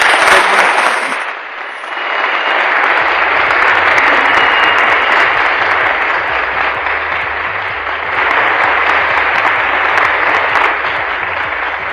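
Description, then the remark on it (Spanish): A large crowd applauds loudly and steadily, dense clapping filling the whole stretch with only a brief dip early on. No one speaks over it. “¡Aplausos, por favor!”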